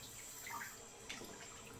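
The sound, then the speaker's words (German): A steady, even rush of tap water pouring into a bathtub, topping up a cooling bath with hot water while someone lies in it, a soft continuous hiss with faint splashy flickers, fairly quiet and with no one talking. “Ich möchte mir eigentlich mal ein bisschen heißes Wasser nachlaufen lassen.”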